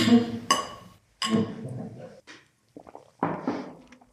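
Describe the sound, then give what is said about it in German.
Beer glasses clink together a few times in a toast, with sharp bright taps that ring briefly, mixed with soft rustling and low handling noise between them. “Ja, ähm, bei dem ganzen Gerede über Bier würde ich sagen, wir stoßen mal an.”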